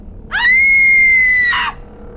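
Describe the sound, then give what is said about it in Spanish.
A single loud, piercing scream from someone in a car who turns around after looking in the mirror; it rises sharply, holds a sustained high shrill pitch for over a second, then breaks into a ragged, strained burst before cutting off, with no talking around it. “Cuando volteó, sacó el peor grito. Un grito desgarrador. Un grito ahogador.”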